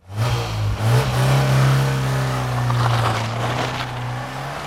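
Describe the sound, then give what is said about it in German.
A car engine revs loudly, its deep droning pitch climbing and holding steady for several seconds before easing slightly, with no voices over it. “Ja, für die einen ist das Musik in den Ohren, für andere schlicht Lärm.”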